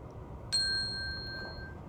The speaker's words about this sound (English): When you hear the chime, turn the page.